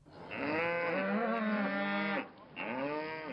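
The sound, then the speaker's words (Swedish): A cow moos loudly in one long, drawn-out bellow, then starts a second moo after a brief pause. No one speaks. “Men då kommer vi in på kor och klimat.”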